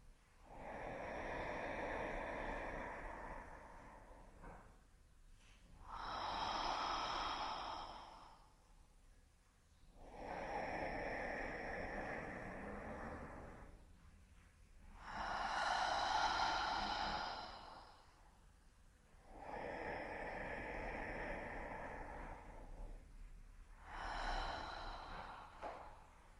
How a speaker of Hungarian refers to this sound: Ismét vigy három mély, tudatos lélegzetet puha hangokkal kilélegezvén.